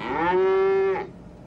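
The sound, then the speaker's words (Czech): A single drawn-out bleat from a mountain-breed sheep, loud, holding a steady pitch for about a second before cutting off into quiet background, with no one speaking. “Podívejte, ovce. Horská odrůda.”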